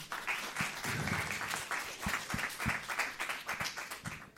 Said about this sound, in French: On applaudit Émilie Le Tocard.